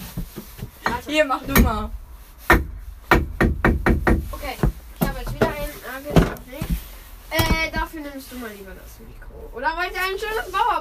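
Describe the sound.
Sharp hammer blows drive nails into wood in quick bursts of several knocks, pausing between runs, while people talk over and between the strikes; the nails are for hanging two small magnets.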